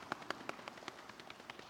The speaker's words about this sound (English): And when I hold up four, I need you to slap your knees like this.